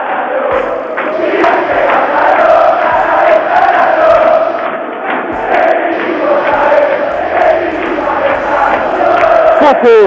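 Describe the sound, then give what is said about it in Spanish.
A large football stadium crowd of Banfield supporters erupts into a loud, sustained roar of cheers and shouts after a penalty is awarded to Banfield, dense and unbroken with no clear pause. “Y escuchen este estallido de la gente de Banfield.”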